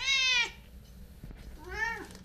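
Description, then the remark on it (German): A cat meows twice, a longer, louder call at the start and a second, shorter meow near the end, with quiet background in between and no talking. The cat is Wendelstein, a tricolour tower cat that lives in the tower with the tower keeper and is officially an employee of the town. “Die Katze Wendelstein ist eine Glückskatze, eine dreifarbige Katze.”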